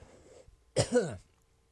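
coughing and throat clearing

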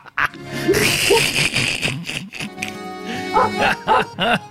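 dog barking

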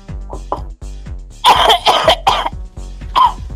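coughing

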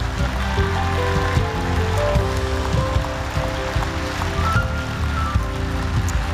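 audience clapping

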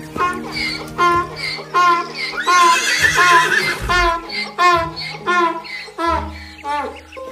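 horse neighing

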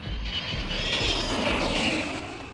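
airplane passing overhead

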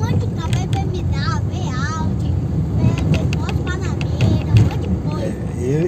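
car driving by

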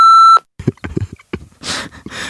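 censor beep

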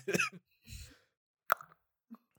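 tongue clicking

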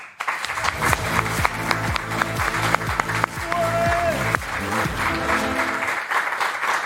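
audience applause

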